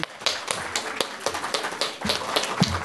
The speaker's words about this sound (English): So we can give Joseph Coelho a huge round of applause, please.